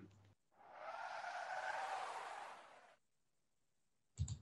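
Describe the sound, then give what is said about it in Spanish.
Car tires skid on a road in one long, harsh screech lasting a couple of seconds, loud, then cut to silence before a brief low thump at the very end; a tire blowout caused by a plank with nails left in the middle of the road, smelling of burnt rubber. “Era un derrape.”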